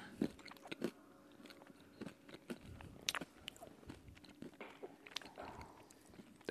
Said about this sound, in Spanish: Así que voy a darle una cucharadita a mi nieve, eh, por si le escuchan. Mm.